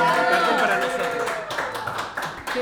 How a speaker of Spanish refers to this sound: Es que pudo volver la gente. Hay gente aquí del otro lado. Vamos a dar un aplauso grande. ahora aplaudimos